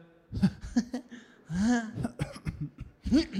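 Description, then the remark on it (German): A voice imitates a dry cough, a run of short, raspy, throaty bursts with voiced, laugh-like edges, uneven in rhythm and fairly loud. “Weil dieses sehr trockene Husten immer dieses.”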